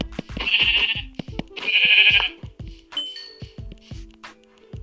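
A sheep bleats twice in quick succession, loud, each cry drawn out and wavering, with sharp clicking taps scattered throughout and a few faint chiming tones afterward.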